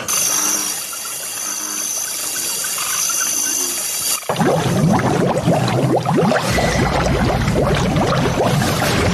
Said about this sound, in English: So, like the water was bubbling, but now the water's red.